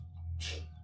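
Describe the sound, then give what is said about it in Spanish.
A single sharp sneeze bursts out in the middle of a short moment, close and fairly loud, over a steady low hum with no talking. “salud.”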